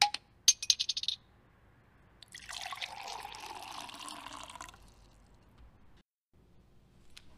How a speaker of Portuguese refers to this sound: Vamos brindar conosco e fazer parte desta corrente. Coloca fone e levanta o copo para o tintim.